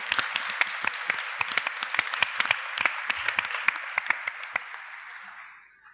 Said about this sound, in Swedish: Ge en applåd. På scenen, ja.